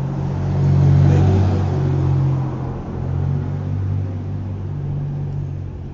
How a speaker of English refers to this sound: no mufflers in New York. We don't believe it. No fucking mufflers on cars. Everybody's cars are a loud piece of crap. Everybody.